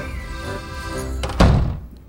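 A door swings shut with a soft click followed by a solid, low thunk, the sound quickly dying away into quiet.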